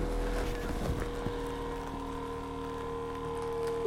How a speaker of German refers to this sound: Jetzt tue ich dich hochliften. Elektrisch, gell? Dann kommst du zum Stehen.